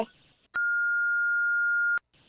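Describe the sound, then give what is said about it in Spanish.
A single steady electronic phone call-waiting hold beep holds for about a second and a half at a fixed high pitch, then cuts off abruptly, with faint line noise before and after, as an incoming call arrives and the caller is put on hold. “No, no, espérame, espérame, espérame, me está entrando una llamada, pero te voy a poner tantito en espera y ahí te, ahí te contesto, espérame, ¿eh?”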